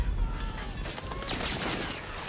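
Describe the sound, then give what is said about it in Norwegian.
A dense, continuous barrage of gunfire and explosions in Seoul crackles and rumbles throughout, loud and chaotic, with rapid overlapping bursts and no clear pauses. “Eksplosjonene smeller rundt meg, og folk er panisk.”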